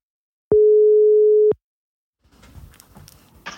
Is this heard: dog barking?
no